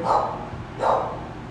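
A dog barks twice, two short, fairly loud woofs about three quarters of a second apart, with no voices over them.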